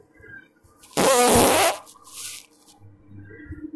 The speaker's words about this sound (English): I hope that came out really good because I'll be laughing my ass off when I listen to it. I hope you guys were laughing because that was a super fresh, wet fart.